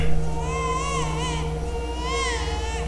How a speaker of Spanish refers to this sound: Cuando guardaron silencio, los demás empezaron a escuchar el llanto de un bebé y de inmediato se bajaron del camión, dirigiéndose hacia donde se escuchaba este llanto. Llegando al lugar, vieron a un bebé llorando dentro de una canasta.